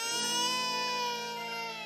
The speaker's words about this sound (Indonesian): Ada suara bayi yang menangis.